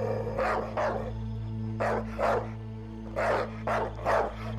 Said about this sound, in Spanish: dos perros muy grandes, un pastor alemán y un pastor belga. Al ver que me estaba acercando a ellos, se quedaron quietos solo estaban mirándome fijamente. De pronto, se me acercaron ladrando, como si fueran a atacar a alguien que venía atrás de mí.